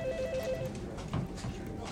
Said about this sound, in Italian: Perché nell'aprile del 1998, mentre il suo mandato come ministra sta per concludersi, squilla il telefono nel suo ufficio di Bonn